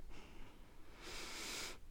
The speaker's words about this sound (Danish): Og så bare lige tage nogle gode, dybe vejrtrækninger ned i maven.